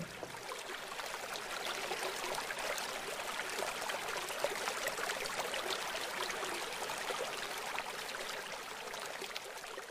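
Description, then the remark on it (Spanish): Steady rushing water of a flowing river, a continuous bright babbling wash with no pauses, evenly loud throughout, with no voices. “Te dejo que disfrutes unos segundos de tu río.”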